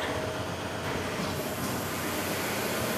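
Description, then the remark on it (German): Steady, loud mechanical clatter from several large braille embossing printing machines running at once in a large machine room of a braille printing works that uses no ink, a dense continuous rattling without pause, with no voices present. “Ah, und hier kommen wir in einen großen Raum mit Maschinen.”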